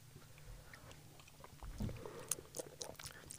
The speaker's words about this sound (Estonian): praegu on hästi head hääled, kuidas kõik lürbivad ja neelavad.